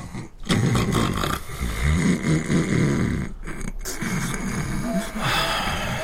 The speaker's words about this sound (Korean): 자리에 누운 라이언은 도통 잠을 이룰 수 없었지만 배수는 어느새 코를 골고 있었다